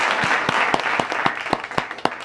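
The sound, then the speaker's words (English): A round of applause from a crowd, a sound effect feathered in by John Bram Wagner, dense overlapping claps with a few sharper, louder claps standing out, the level rising and easing slightly over a couple of seconds. “Uh, talk about feathering in a round of applause.”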